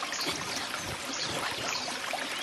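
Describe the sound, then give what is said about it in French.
A babbling stream flows steadily for the whole stretch, a dense, bright rush of water with small gurgles and splashes, even in volume, with no voices. “Quand les deux frères passent près du ruisseau”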